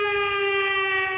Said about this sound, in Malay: Oh bukan bomba, bomba. Bunyi bomba. Ini bunyi siren lah.